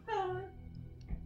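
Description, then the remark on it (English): A single short meow from a cat named Spyder, fairly clear, with a falling pitch that trails off into quiet background noise. “Yeah, the cats have destinies too.”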